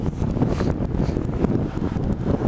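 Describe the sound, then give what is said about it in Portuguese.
Close, steady rush of water washing in, almost reaching the speaker, a dense roaring wash with surging swells and heavy wind buffeting the microphone, continuous throughout with no voices. “A água tá quase chegando em mim aqui já.”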